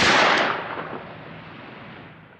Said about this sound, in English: Before he can react, Karl raises his gun and shoots him dead.